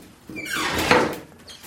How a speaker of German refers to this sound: Sie öffnet die Tür, die den Versuchsraum von der Außenvoliere trennt.